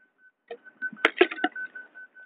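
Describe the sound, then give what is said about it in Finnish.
A pedestrian traffic light signal in Hämeenlinna, Finland, chirps in a steady series of short, high beeps during an early-morning walk, with a brief burst of clattering knocks partway through; no one speaks. “Lähdin juuri aamuyöseen Hämeenlinnan kävelylle, joten jos taustalta kuuluu outoa ääntä, se on todennäköisesti liikennevalojen lirty.”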